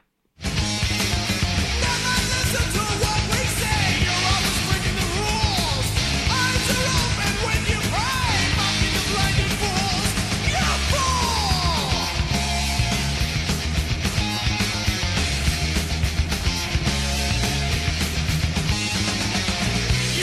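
A loud, dense heavy metal song from a Colorado band's August 1984 debut album plays without pause: driving distorted guitars, pounding drums and a wailing high vocal line that slides through the mix, sustained at full intensity throughout.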